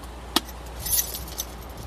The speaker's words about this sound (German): Also hier befindet sich so eine Art Schlüsselsäckchen, das sieht aus wie handgeklöppelt. Münzen. Münzen.